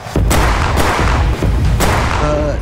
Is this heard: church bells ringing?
no